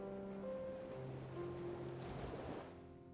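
Ocean waves wash in and recede in a steady, continuous rush, with a soft surge swelling and fading near the end, alongside faint sustained tonal hums and no voices.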